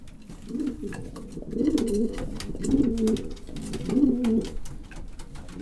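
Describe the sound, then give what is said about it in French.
About a hundred pigeons in a pigeon fancier's loft coo in low, throaty bursts, repeating roughly every second over a steady murmur of several birds, with faint clicks and flutters. “En gros, j'ai à peu près une bonne centaine de pigeons.”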